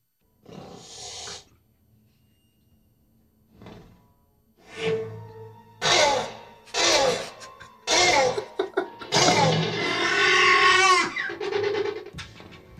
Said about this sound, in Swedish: När man ser på filmen också och tänker att ah, det är det här ljudet som eh, egentligen är sköldpaddor som parar sig. Vi kan ta och lyssna på det igen, så det låter helt annorlunda då.